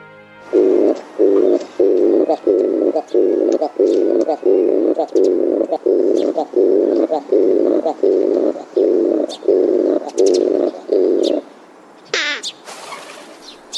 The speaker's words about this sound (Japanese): 実は冒頭の鳴き方もキジバトのオスがメスの横で歌う繁殖期限定の求愛ソング